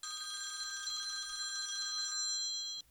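A telephone bell rings continuously and loudly, a rapid metallic trill that holds steady for nearly three seconds before cutting off abruptly. No voices accompany it.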